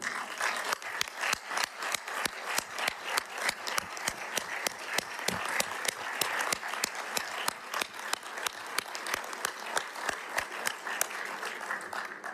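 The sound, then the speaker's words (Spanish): Sustained applause from a large crowd celebrating Brazil's return to CELAC, with many sharp overlapping claps forming a dense, steady patter that stays fairly even throughout, with no talking. “Antes de, de rendirles cuentas de lo que hemos hecho, quiero pedirles a todos un enorme aplauso para celebrar el retorno de Brasil a la CELAC.”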